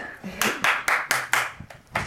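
A single person claps about half a dozen times in a quick, steady rhythm, each clap a sharp, bright smack, with a faint voice murmuring underneath.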